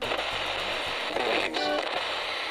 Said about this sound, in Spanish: de repente me sorprendió el sonido de una radio sintonizada en la emisora del ejército.